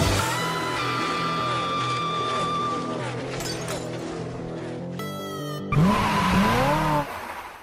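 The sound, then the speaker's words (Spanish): Loud racing engines drone steadily, then after a brief break a sharp burst of tire squeal and revving rises up before cutting off abruptly. “Damas y caballeros, Enciendan sus motores y que comience la adrenalina. Verde, verde, verde. Arrancamos.”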